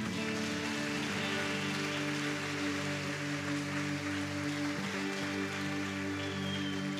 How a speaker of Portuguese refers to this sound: Amém, igreja? Estão comigo? Dá um salve de palmas para Jesus, então.